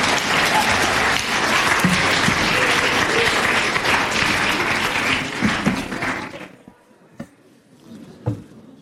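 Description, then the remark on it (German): Dense, steady audience applause of many hands clapping for people who stood up after answering a riddle fills the first six seconds, then stops abruptly, leaving a few scattered faint claps and small noises. “Bravo, Applaus, Applaus, Schluchzalat.”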